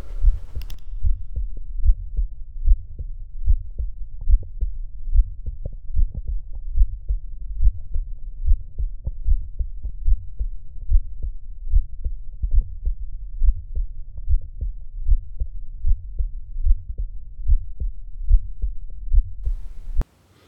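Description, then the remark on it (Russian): A Still's murmur in an 18-year-old man, heard through a stethoscope between the left sternal border and the left midclavicular line, just below nipple level: steady, regular low thumping heartbeats with a soft rushing hum between them, continuous for about twenty seconds, with no talking. “Следующий пациент – мужчина 18 лет – Аускультация в типичном месте выслушивания шума стила, между левым краем грудины и левой среднеключичной линией, чуть ниже уровня соска.”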